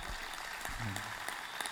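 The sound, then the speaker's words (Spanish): A church audience applauds the Lord, a dense, steady wash of many hands clapping at once, with a faint voice rising briefly underneath the sustained clatter. “Y doy gracias a Dios porque la Biblia dice, den un aplauso Señor.”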